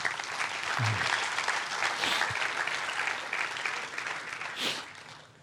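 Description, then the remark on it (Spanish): Sustained applause from an audience, a dense steady patter of many hands clapping throughout, swelling briefly near the end before tapering off, with no one speaking over it. “Dele un fuerte aplauso.”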